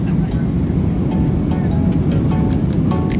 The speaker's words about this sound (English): Splash.